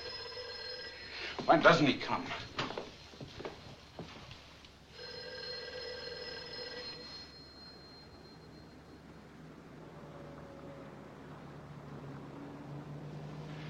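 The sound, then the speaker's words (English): A telephone bell rings in two bursts, separated by a short stretch of someone speaking, over a steady low background rumble that continues after the ringing stops. “You know better than to use the phone.”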